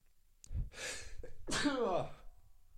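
A voice imitates a sneeze: a quick, sharp breath in, then a loud, drawn-out "achoo" with a falling tone, alone with no other talking.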